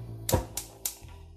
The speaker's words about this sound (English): That sound you just heard was my igniter not really wanting to go off until it incinerates my eyebrows, but I survived it.